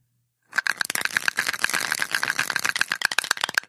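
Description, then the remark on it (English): A gallstone rattles rapidly inside a plastic specimen cup for about three seconds, a dense, clattering shake with no talking. “That is the sound of a uh, gallbladder, uh, gallstone bouncing around in a plastic uh, specimen cup.”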